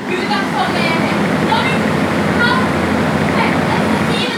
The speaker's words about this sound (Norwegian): Det hører dere. Det er sånn du vil høre hvis du går nærme en vifte.